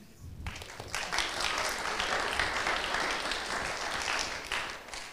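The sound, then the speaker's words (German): A crowd bursts into applause after a brief quiet moment, sustained dense clapping that stays fairly steady and full for several seconds before easing slightly toward the end. “Oder, danke, vielen Applaus”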